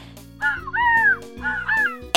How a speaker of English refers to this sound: a whooping crane